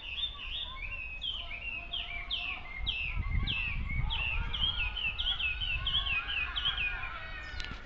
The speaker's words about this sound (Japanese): 今の鳥の声さえずり聞こえましたでしょうか非常に美しいさえずりで何の鳥でしょうかね